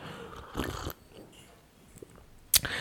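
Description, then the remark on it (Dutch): Someone takes a sip of a drink: a short slurping burst, a quiet pause with faint mouth sounds, then a sharp clack like a cup being set down. “En dan neem ik even een slokje drinken eerst.”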